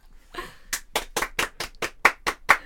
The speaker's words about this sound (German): Ich liebe es, ich liebe es wenn, wenn nur einer klatscht. Ich finde das so toll. Es ist großartig.